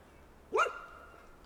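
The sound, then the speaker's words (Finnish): A single dog bark rings out once, a short rising yelp over quiet outdoor background hum, with nothing else following. “Sieltä kuuluu haukunta.”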